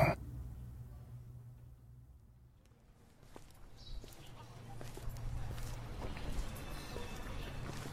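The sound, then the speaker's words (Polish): Heavy, plodding footsteps thud along Sosnowa Street at a steady pace a few metres off, growing more distinct after a quiet start, over a low continuous background rumble. “Ciężko stawiane kroki dało się słyszeć z odległości kilku metrów.”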